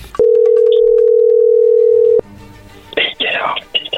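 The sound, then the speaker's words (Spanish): A telephone dial tone as a call is being placed: one steady, loud, mid-pitched hum lasting about two seconds that cuts off abruptly, followed by a quiet line hiss and then bursts of muffled, crackly voice-like noise. “ahí se está marcando, no hagas nada de ruido”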